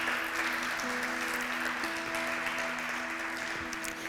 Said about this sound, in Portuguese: Pode aplaudir.